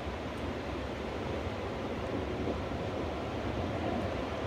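A steady, rushing wash of ocean surf rolls on without pause, a continuous roar of waves against the shore with no distinct individual breakers standing out, and no voices.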